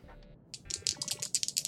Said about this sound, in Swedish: Kan jag, Ralf göra det med eh, ett svårt slag så han slår två tärningar och väljer det sämsta?